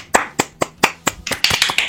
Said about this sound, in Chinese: 啊！现在是一段稀稀拉拉的掌声啊！